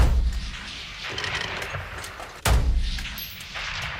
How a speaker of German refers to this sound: Die Veranstalter rechnen mit 2,5 Millionen Schuss, die am Schützenfest verschossen werden. Es könnte also laut werden im Juni 2026.